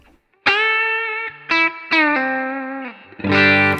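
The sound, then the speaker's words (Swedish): An electric guitar, the 50B broadcast variant, plays alone with a little more output, settings unchanged: three bright, ringing single notes that sustain and fade, then a fuller strummed chord at the end. The tone is clean, with no talking. “Det här är alltså då 50B, eh, broadcast-varianten.”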